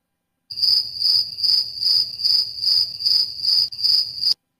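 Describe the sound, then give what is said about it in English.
Crickets chirp steadily in a shrill, high-pitched trill, pulsing in an even rhythm about twice per second for several seconds, loud with no voices. “I hear crickets.”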